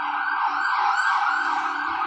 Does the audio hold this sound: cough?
no